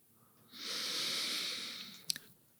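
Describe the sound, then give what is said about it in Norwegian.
One long, deliberate breath, a steady airy rush lasting about a second and a half, followed by a couple of soft mouth clicks. No one speaks. “Det jeg gjorde nå, puste.”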